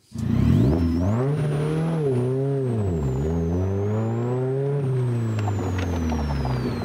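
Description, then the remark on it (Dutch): The engine of a Morgan Plus 4 sports car, made by the Morgan Motor Company, revs loudly and steadily, its pitch rising and falling through several swells over about seven seconds, with a thin high whine riding above the deep rumble. “Ja, dat klinkt best lekker, hè? Dit is een Morgan.”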